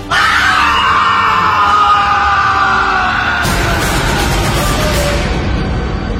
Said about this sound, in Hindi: एक भयानक दर्द भरी तेज चीख पूरे जंगल में गूंजी